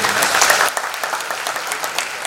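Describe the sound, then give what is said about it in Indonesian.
A church audience bursts into applause, a dense wash of clapping that is loudest at the start, then settles into a steadier, slightly thinner patter of hands. “Berikan tepuk tangan buat”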